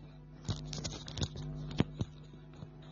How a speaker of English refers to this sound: It rained here today, so the line, sorry, the line is disturbing.